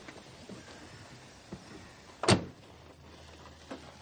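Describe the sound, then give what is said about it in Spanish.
A single sharp, loud caravan door thud stands out over a faint low rumble, with a couple of softer knocks before and after it and no voices, as a man arrives by car at a caravan in a remote area and enters it. “Lance llega en coche y entra en la caravana.”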